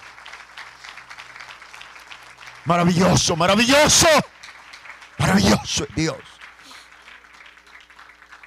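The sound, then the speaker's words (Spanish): A crowd applauds for the Lord steadily throughout, a soft continuous patter that persists beneath two bursts of loud, excited speech from a single voice. “Yo le decía aplauso al Señor.”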